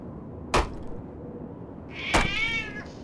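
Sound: cat meowing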